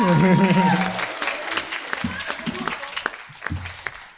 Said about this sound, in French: Euh, des applaudissements aussi, s'il vous plaît.